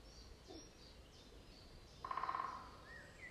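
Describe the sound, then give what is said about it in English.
A quick burst of woodpecker drumming, a short rapid rattle of about half a second, rises out of a quiet forest backdrop with faint bird calls. “Here is the woodpecker again.”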